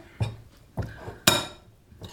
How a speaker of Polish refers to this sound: Teraz całość dodaję do zmielonego wcześniej mięsa. I delikatnie mieszam, tak żeby mi się nie wysypywało.